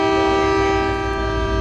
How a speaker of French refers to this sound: C'est le train de marchandises qui s'en va Si. Donc il part avant le train de voyageurs.